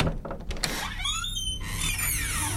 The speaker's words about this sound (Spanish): El crujir de la puerta al abrirse resonó en la habitación